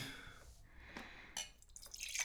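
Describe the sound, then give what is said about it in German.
Whisky pouring into a glass and spilling onto a carpet, with gurgling, dripping splashes, a short burst then a bubbly stream rising in pitch at the end, with no voices over it. “Dann können wir den Bums auch eingießen”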